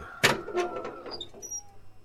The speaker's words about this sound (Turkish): Bu kapı ne kadar ses yapıyormuş meğer.